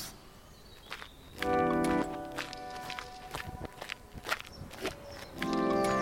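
footsteps walking

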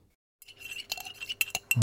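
coffee cups clinking

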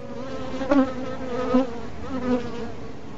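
bees buzzing

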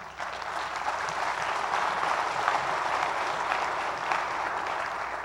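audience clapping

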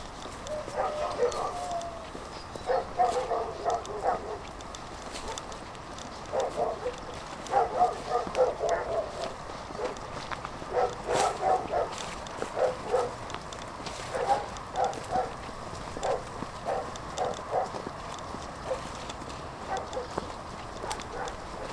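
dogs barking

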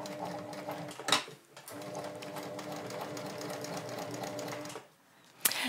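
sewing machine stitching

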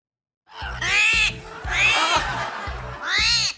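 owl calling

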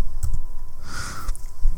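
computer mouse clicking

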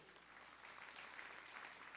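audience applauding

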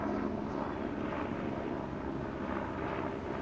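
helicopter passing overhead

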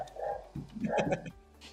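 dogs barking

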